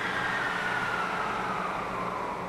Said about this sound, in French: Qu'est-ce que c'est que ce bruit? Euh, simplement la vapeur qui s'équilibre. Ah, c'est ça. Alors, tout fonctionne à vapeur.